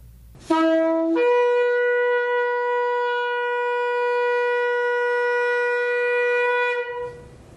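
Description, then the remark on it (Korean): A single long blast on an Israeli shofar horn blown in the tekiah style: a brief lower opening note jumps up to a bright, sustained horn tone held steadily for about six seconds before cutting off, loud, with no talking. “자, 여기서 정말 이스라엘의 나팔, 쇼파로 각각의 방식으로 부르는 소리를 들려드리겠습니다.”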